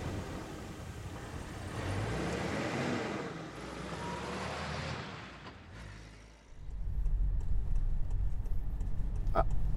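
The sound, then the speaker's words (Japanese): Steady low road and engine rumble from inside a moving private car on the way to a house, easing briefly then swelling again, with a few faint ticks near the end; no one speaks. “今、えー、岸の車で、自家用車で、私の車で録音しているので、このままちょっと高野の家の方まで向かっていこうと思います”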